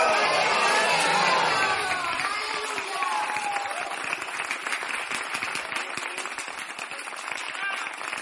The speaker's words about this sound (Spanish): Fuerte el aplauso para Jesucristo. Fuerte, gloria a ti, Señor.